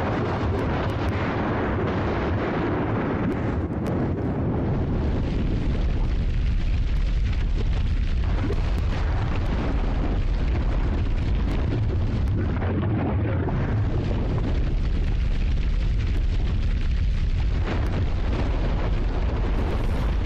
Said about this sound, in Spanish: Qué poderoso suena esto, ¿no? Estamos escuchando una explosión volcánica, eh, un riesgo que pues se vive en muchas comunidades de nuestro país, por supuesto de nuestro planeta, Puebla, ¿no? las personas que viven cerca de la Popocatépetl